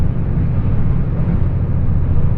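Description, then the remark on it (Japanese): A steady, loud low rumble fills the space, the continuous drone of the JR West Hida No. 14 limited express, a four-car train bound for Nagoya, running on the Takayama Main Line from Toyama to Inotani, heard from inside a carriage, with no voices and no breaks. “耳で楽しむ鉄道旅 高山本線特急ひだ14号 富山→猪谷”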